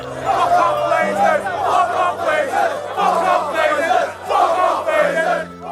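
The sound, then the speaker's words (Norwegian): About 5,000 angry Manchester United fans chant loudly outside the stadium on 2 May, before a home league match against Liverpool, shouting that they want to be rid of the Glazer family. Their voices surge in rhythmic bursts roughly every second, with a low steady drone underneath. “Det var amper stemning, og de ropte at de ville bli kvitt Glazer-familien.”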